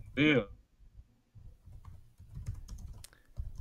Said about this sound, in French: Voilà, je pense que tu t'interromps et que tu écoutes des bruits de clavier.